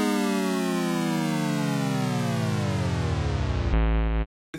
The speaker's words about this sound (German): aber pass auf, wir mussten jetzt den, äh, das, Ding Game Over Sound machen, weil sonst hätte Mr. Spotify seine Killer auf uns gehetzt.